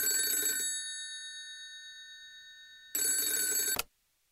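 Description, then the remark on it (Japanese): An old-style telephone bell rings in two bursts, a loud metallic jangle of about half a second, then a pause with fading ring tones before a second burst cuts off abruptly, as the Expo association's secretariat section chief phones Secretary-General Shunichi Suzuki, at home after 9 p.m.; no voices. “当時の万博協会秘書課長は、午後9時過ぎ帰宅していた事務総長の鈴木俊一に電話をかけた。”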